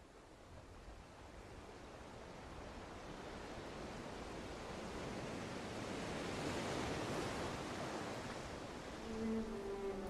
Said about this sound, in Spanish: Hermoso mar de sonido envolvente, resplandeciente ante la luz de la luna